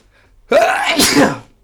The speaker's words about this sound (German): Gesundheit. Oh, Gott, verdammt. Dankeschön.